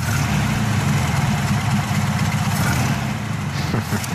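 An air-cooled Volkswagen Combi van with a Beetle engine idles steadily, a loud, rhythmic low chugging and clatter with a constant mechanical hum, no voices over it.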